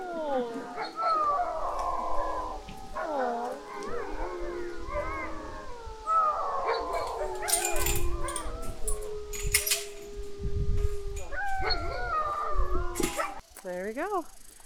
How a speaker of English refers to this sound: oh, the other dogs are saying goodbye.